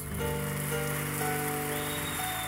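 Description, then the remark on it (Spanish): A crowd applauds God during praise and worship in a dense, steady wash of clapping that holds at an even loudness throughout, with sustained keyboard-like chords ringing underneath and no one speaking. “Dar un aplauso a Dios.”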